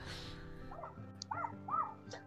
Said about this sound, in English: Oh, oh, God, please tell me you can't hear the dogs. A little bit. It's not a big deal. Oh, okay. My neighbor's dogs, the minute they come outside and see one thing, it's like, oh, better bark at it for 10 hours.